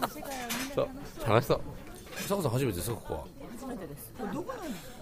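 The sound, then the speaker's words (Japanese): Busy background of the Edoya restaurant in Azabu-Juban, with chefs running about and scattered clinks of dishes and cutlery, heard beneath conversation and a burst of laughter. “皆さん聞こえますかこれが江戸屋の音ですほらね生き生きとしたシェフたちのシェフが走ってきました”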